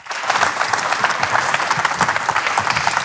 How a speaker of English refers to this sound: So, uh, welcome to our panel. Uh, welcome, guys. Big round of applause.